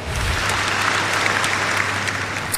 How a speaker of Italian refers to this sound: Applausone. Bravo.